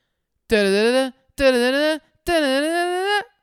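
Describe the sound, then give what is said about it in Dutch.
A short bumper jingle: three loud, bright sustained notes, each rich in harmonics with a slight wavering pitch, separated by brief pauses, with no talking. “Ja, doe die bumper. Kom maar op. komt-ie.”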